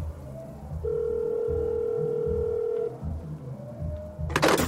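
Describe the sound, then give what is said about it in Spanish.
A telephone is dialed from in front of the La Perdición cantina in Chiconautla, State of Mexico: a steady electronic tone for about two seconds over a low rumbling background, then a brief sharp clatter near the end, like a handset being handled. “Chingada madre, pinches teléfonos de mierda.”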